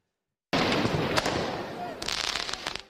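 Firework mortars and firecrackers fired at police go off in a dense barrage at Place Bellecour in Lyon, France, during urban violence after the French team's defeat: loud, sharp cracking bursts with rapid crackling clusters near the end, over a constant roar of crowd noise.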